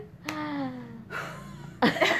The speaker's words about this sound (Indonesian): aduh nah kalau kalian dengar suara batuk-batuk tuh lagi pemanasan suara pengambilan nada